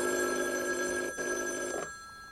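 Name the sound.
telephone ringing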